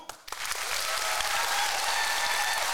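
An audience claps to vote for which story they want to hear, bursting into steady applause, many hands clapping in a dense, sustained wash of sound that starts after a brief pause and holds loud and even throughout.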